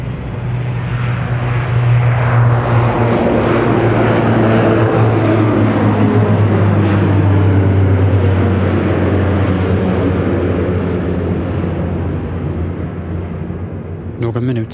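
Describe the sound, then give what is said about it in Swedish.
A full-size Horizon Air passenger plane, flown by a member of the airline's ground staff who had never flown a plane before, takes off with a loud, sustained engine roar and deep rumble, its tones slowly shifting as it accelerates, then a brief click near the end. “Nu är han på väg att ta ett fullstort passagerarplan till skyarna.”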